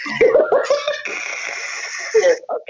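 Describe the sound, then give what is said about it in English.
A woman takes a few short voiced breaths that lead into a long, drawn-out yawn that holds steady for over a second, then trails off in a small sigh-like sound at the end. “she just yawned, y'all.”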